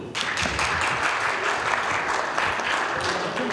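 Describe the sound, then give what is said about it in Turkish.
A crowd applauds steadily, a dense, continuous patter of many hands clapping at full volume throughout, with faint voices mixed in underneath, at a ceremony where the Güvenlik İş union, affiliated with Türk-İş, awarded plaques to media workers. “alkışlarla Türk İş'e bağlı Güvenlik İş Sendikası Mart ayından bu yana pandemi sürecinde en zorlu koşullarda bile sahalarda olup haber veren basın mensuplarını ödüllendirdi.”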